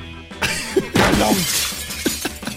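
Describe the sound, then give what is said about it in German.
A window and its frame fall into a building with a loud burst of shattering glass and huge noise, followed by scattered tinkling shards and smaller clatters as debris settles. “Das Fenster fällt samt dem Rahmen ins Gebäude rein und macht riesengroßen Lärm.”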